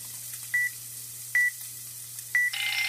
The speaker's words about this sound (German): dass man also genau, genau. weiß, in zehn Sekunden passiert hier was. Genau, er fängt dann auch an, Geräusche richtig zu machen, das runterzuzählen. So ping, ping, ping.